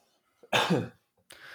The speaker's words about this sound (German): Jetzt muss ich kurz husten.